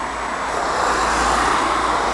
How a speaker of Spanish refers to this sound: Ahí está el sonido del tránsito en Lyon, cerca del parque de la Tête d'Or.